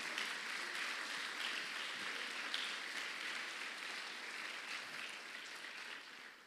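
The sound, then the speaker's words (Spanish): A church audience claps their hands for the King of Glory in a sustained, dense round of applause, a steady wash of many overlapping claps holding at an even level for several seconds before easing slightly at the end. “Dale palmas fuerte al Rey de la Gloria.”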